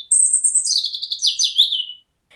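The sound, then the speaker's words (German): A European robin living in ivy outside a bedroom window sings a clear, high, tinkling phrase of rapid warbling notes lasting about two seconds, fairly loud, with no voices or other sounds around it. “Seit Mai wohnt das Rotkehlchen jetzt im Efeugestrüpp vor mein Zimmer.”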